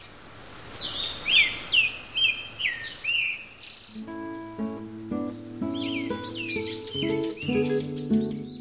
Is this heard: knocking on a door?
no